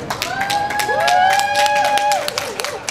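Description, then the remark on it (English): A crowd at an airport in Manitoba claps and cheers loudly, welcoming back a 25-year-old Indigenous man after he biked across Canada. A long, sustained high-pitched call or whoop rises and holds over the dense, steady applause. “That is the sound of a 25 year old Indigenous man being welcomed back to Manitoba at the airport after biking across Canada to fundraise and raise awareness about the suicide crisis in Tataskweyak Cree Nation this summer.”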